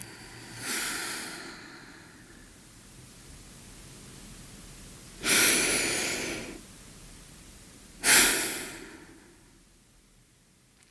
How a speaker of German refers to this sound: Versuch mal, schön durch die Nase zu atmen. Also mit ganz viel Achtsamkeit und Gleichmaß wirklich versuchen, durch die Nasenhöhlen, an Stirn, Gehirn vorbei, in die Luftröhre, in die Bronchien.